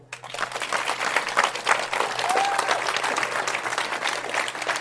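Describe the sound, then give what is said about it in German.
A live audience at a live event in a monastery garden at sunset applauds steadily, a dense wash of many hands clapping that holds for several seconds with no one speaking over it. “Liebe Podcasthörer, wie Sie wahrscheinlich im Hintergrund jetzt hören, wir sind wieder live.”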